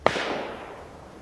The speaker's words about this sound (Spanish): sacó la pistola, la montó y disparó el gatillo pero no salió el disparo, por lo que volvió a montarla, saliendo disparado el cartucho no disparado y cayendo al suelo, disparando nuevamente hasta tres tiros dirigidos a cada una de las tres jóvenes.